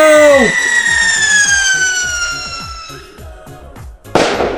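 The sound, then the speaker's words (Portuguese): A firework rocket whistles for several seconds, its tone sliding slowly downward, then ends in a sudden sharp bursting bang, loud, with no one talking. “lá vai o Rojão!”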